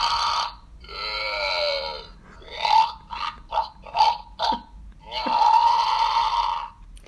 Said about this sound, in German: Das ist ein Plastik-Zombie-Kopf, wo man das Gehirn sieht und wenn man da drauf drückt